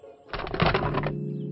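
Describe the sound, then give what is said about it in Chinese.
A quick flurry of crisp, rapid snipping clicks, like scissors cutting, runs for under a second and then stops, leaving a faint low hum underneath. “猎人想了想，找来一把剪刀，剪开了大灰狼的肚子。”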